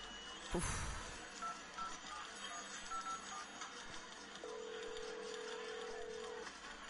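A sharp click followed by a steady electronic tone held for about two seconds, like a phone keypad beep or dial tone, over a faint hiss of background noise.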